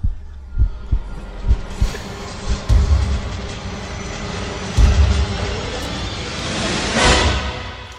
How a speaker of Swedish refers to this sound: jag vet att du, du, är lite nervös om du ska höra den här Vem där-musiken här, så vi får se, men, men jag sätter igång den nu.